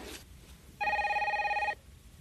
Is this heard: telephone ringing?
yes